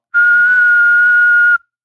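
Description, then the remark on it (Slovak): A single steady high-pitched tone like a TV test-card beep, held loud and unbroken for about a second and a half, with a faintly breathy, whistle-like quality and no talking. “píp, monoskop.”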